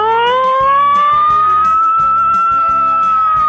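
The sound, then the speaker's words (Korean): A voice on Park Myung-soo's Radio Show mimics an American siren wail: one loud, sustained, slowly rising tone held for several seconds over a steady rhythmic music bed. “사이렌 소리. 누구 소방차는 또 틀리거든요.”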